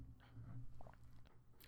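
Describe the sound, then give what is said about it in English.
A quiet sip from a drink, with a few soft wet slurping and swallowing noises over a low steady hum, and no one talking. “Man, hold on, I gotta take a, I gotta take another sip for this because I'm about to talk a lot on this one.”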